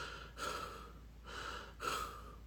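Three heavy, ragged gasping breaths from a heavyset man coming to after coughing twice as if choking, loud and breathy, the last two following each other quickly. No one speaks.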